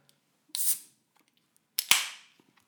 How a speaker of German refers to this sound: Wie beim richtigen ersten Mal mache ich erstmal hier ein Bier auf.